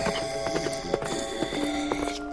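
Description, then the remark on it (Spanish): Steady clip-clopping of horse hooves, a brisk, even rhythm of sharp knocks over a sustained tonal background, at moderate volume with no talking. “Le dicen el jinete sin certeza, una maldita aparición que suele presentarse a quienes no ahorraron para su retiro justo cuando ya no hay marcha atrás.”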